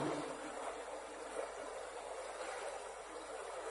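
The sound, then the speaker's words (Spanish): Water flowing out of a cave near the village of Rioz in autumn rushes steadily and continuously, a soft, even hiss-like burble that never breaks, heard alone without any voices. “Sí, sí, cuando fuimos al pueblo de Rioz estábamos disfrutando de los colores del otoño, del olor a tierra mojada, recogiendo hojas, cuando nos encontramos una cueva de la que salía agua”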